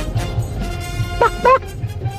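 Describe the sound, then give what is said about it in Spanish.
Two quick, sharp dog barks close together near the middle, fairly loud, over a steady low background hum with no talking. “O sea, dos perros, saludos.”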